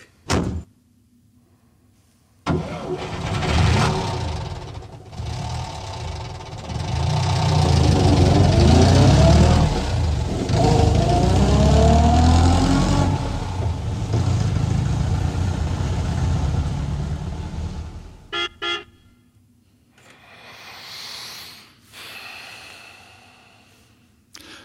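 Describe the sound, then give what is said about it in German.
An American pickup truck engine cranks and roars to life, then revs loudly in rising and falling surges before cutting off abruptly, followed by a softer rumble and clunks near the end. “es gibt so viele Nummern, die mit einem startenden Auto, das ist offensichtlich auch so ein amerikanischer Pickup”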